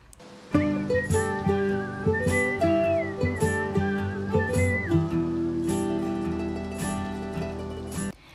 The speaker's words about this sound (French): Pour l'instrumental de la chanson, on entend un sifflement qui joue la mélodie, des petites percussions et un instrument à cordes.